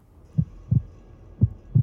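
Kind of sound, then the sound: human body sound, heartbeat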